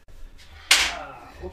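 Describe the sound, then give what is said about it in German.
A chair bumps with a single sharp knock, its clatter ringing out and fading over about half a second, while a person gives a short startled exclamation. “das war der Stuhl.”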